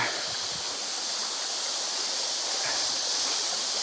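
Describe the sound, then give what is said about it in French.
A large tropical river in humid tropical surroundings rushes steadily, a dense, continuous wash of flowing water with a bright hiss, heard on its own with no voices. “bah, la rivière elle est là.”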